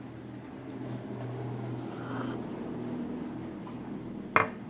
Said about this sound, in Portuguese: Barulhos de carros e o meu café.